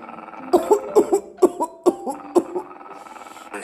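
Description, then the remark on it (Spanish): A fit of harsh, hacking coughs, about seven or eight in quick succession, fairly loud, with a raspy voiced quality and no talking. “Esta tos no me deja en paz.”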